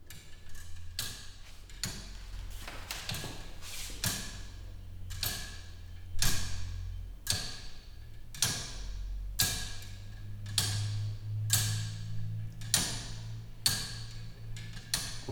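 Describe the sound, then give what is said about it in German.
A clockwork without a pendulum ticks in sharp, bright clicks, about one per second but with uneven, slightly irregular spacing, over a low background rumble of street traffic outside slowly growing louder. “Dass das nicht regelmäßig tickt, das macht nichts, das ist nicht ganz gleichmäßig ist.”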